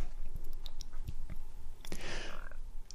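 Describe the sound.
Wet mouth noises of a seriously ill grandmother moistening her dry lips with her tongue: soft lip smacks and tongue clicks scattered over a few seconds, ending in a moister, drawn-out smack, quiet with no talking.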